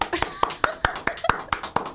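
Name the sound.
hand clapping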